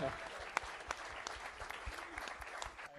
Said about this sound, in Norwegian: Og vi kan alle da gi en applaus